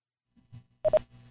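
signal or alarm, telephone call connecting tones

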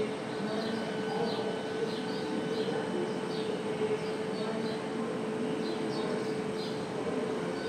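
bird, many birds singing outdoors

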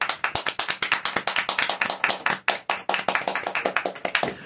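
crowd, hand clapping

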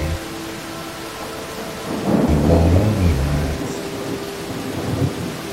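nature, rain

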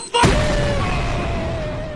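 sound effect, explosion sound effect

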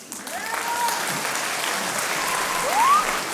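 crowd, applause and ovation

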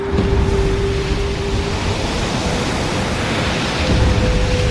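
nature, rough ocean waves crashing

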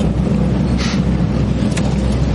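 vehicle, car driving

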